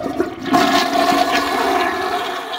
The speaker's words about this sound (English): So uh, now we move on to the not so credit uh, award, basically the golden plunger. So flush the toilet.